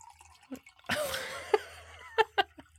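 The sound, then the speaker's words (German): Liquid glugs from a bottle into a glass in a short pour with a rising pitch as it fills, followed by a few small drips and clinks. “Achso, das ist das Glas, das, ist die Flasche.”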